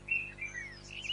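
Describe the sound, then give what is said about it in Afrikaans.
A bulbul calls outside, where oranges have just been put out for the birds, in a quick run of bright, warbling chirps and whistles, fairly soft, with no voices over it. “'n tip tot wat hier so baie gelukkig is oor lemoene wat ek nou net vir hulle buite gesit het.”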